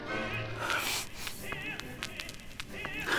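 A vinyl record plays scratchy music that keeps snagging on a skip, a sharp click recurring every half second or so as the same short fragment loops over and over.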